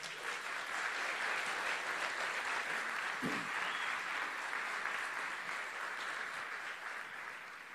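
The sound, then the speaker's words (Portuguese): A large church audience claps steadily for several seconds in applause to the Lord, a dense, even wash of applause with no pauses, fading only slightly toward the end. “Você pode aplaudir ao Senhor?”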